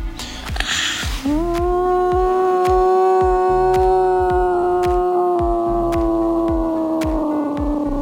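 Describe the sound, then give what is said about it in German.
A voice imitating a blue whale call: one long, steady, low moaning tone held for about seven seconds, drifting slightly in pitch, with a soft, regular throbbing pulse underneath. “Ich glaube, der Blauwal.”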